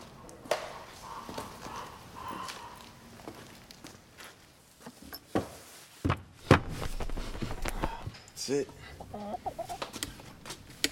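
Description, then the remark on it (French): A hen clucks in short, excited bursts, with scratching and shuffling movement sounds scattered between the calls. “Poule s'anime frénétiquement lorsque Jean commence à délirer”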